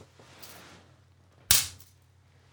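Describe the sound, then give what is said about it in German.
A single sharp slap as a thin object strikes a bare arm, loud and crisp with a quick decay, over a faint low hum and otherwise quiet. “Okay, dann noch, dass wir Sound haben. Hau auf meinen Arm.”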